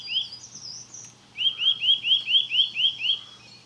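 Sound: bird singing loudly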